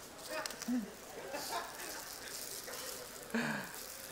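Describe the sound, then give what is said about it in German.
Scattered bursts of ripping and crinkling from several directions as an audience tears open packages placed under their seats for a tooth-brushing tutorial, moderately loud, with faint voices murmuring underneath. “Oh, ich höre es ratschen.”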